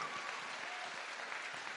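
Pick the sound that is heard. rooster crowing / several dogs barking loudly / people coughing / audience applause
audience applause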